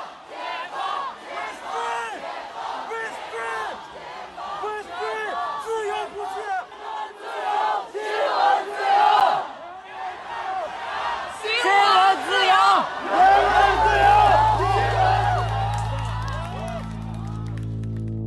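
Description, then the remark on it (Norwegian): A protest crowd that had first lit candles loudly chants slogans, the same ones a man hung from a bridge in Beijing in October, in rhythmic, repeated bursts of many overlapping voices, with the shouting swelling toward the end as a steady low drone joins underneath. “først så tente de lys, men etter hvert så, eh, på grunn av at de var der og, tydeligvis ble oppildnet av det å være sammen i, i møte med en så dramatisk hendelse og måten myndighetene hadde reagert eh, på det på, så begynte de også å rope slagord.”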